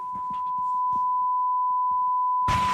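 A steady, unbroken electronic sine tone hums at a constant pitch throughout, with faint muffled voices beneath it early on and a sudden burst of loud noise at the very end.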